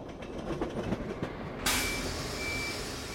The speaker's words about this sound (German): Der Zug fährt ganz schön langsam, da werde ich ja fast schon müde.